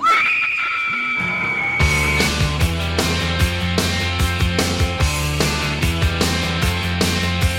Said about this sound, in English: And now the screaming starts. For them. And for you.